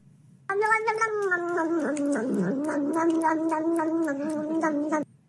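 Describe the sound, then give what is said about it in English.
A person imitates a yowling cat with one long, wavering, drawn-out cry, loud, holding steady for several seconds before cutting off abruptly. “Wish I was cat right now. I really wish I was cat right now.”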